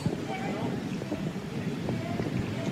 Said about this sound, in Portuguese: E quando o vento retorna, né? Sabe que tinha dado uma amenizada no vento, hein? E tava legal.